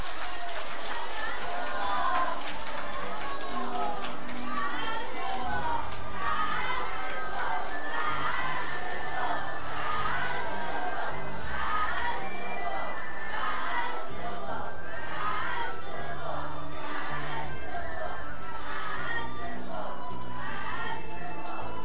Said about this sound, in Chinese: 让我们再起热烈的掌声，感恩大慈大悲观世音菩萨，感恩大慈大悲的卢军红台长。